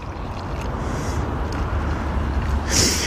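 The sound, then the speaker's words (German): A steady splashing rush of a drink being poured into a glass, about half full, continuous for a few seconds with a brighter fizzy burst near the end, no talking over it. “So, bitte einmal einschenken, ich weiß ich, so halb voll oder so.”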